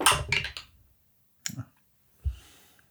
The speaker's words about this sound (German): Ich, da muss ich auch würfeln, oder? Also gegeneinander.